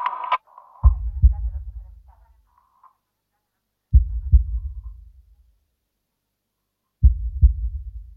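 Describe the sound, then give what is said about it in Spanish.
A slow, deep heartbeat of bradycardia, a resting heart rate below 60 beats per minute, thuds in three evenly spaced double beats about three seconds apart, each lub-dub low and booming with a fading tail, after a brief faint tone at the start. “Se llama braquicardia y se produce cuando el ritmo cardíaco en reposo funciona por debajo de los 60 latidos por minuto.”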